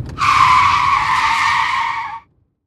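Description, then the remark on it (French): A car brakes hard on a poorly maintained national road across a moor, its tires letting out one loud, sustained screech for about two seconds before cutting off abruptly, with a low rumble underneath. No one speaks. “Sherlock pila et les pneus de l'aminé appelèrent au secours.”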